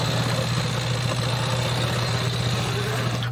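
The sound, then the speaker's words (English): A motorized bicycle's small engine idles steadily with a low, constant hum and a faint high whine, loud, running without pause for the whole stretch before cutting off abruptly at the end. “They are now the biggest makers of motorized bicycles in America.”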